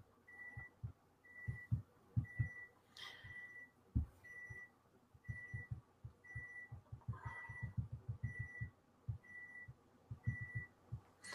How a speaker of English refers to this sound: Um, yeah, I have a timer going off in the background. That's I'm trying to fix that.